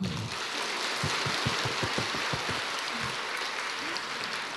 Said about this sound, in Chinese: 鼓掌。